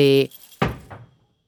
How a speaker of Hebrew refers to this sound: תפוח עסיסי נפל ממש לרגליו של ארנב.